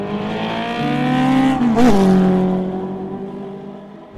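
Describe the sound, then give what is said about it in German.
The engine of a late-1990s Mercedes car hums steadily, then revs briefly with a rising and falling pitch before settling back into a smooth drone as the car drives on. No one speaks. “Wir sitzen jetzt hier in einem Auto, in einem Mercedes Ende der 90er ist der gebaut ja.”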